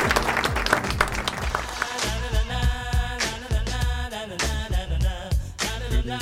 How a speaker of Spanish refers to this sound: Arriesgados y habilidosos recibimos con un fuerte aplauso al grupo de Acro Yoga Namastela.